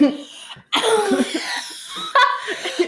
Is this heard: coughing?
yes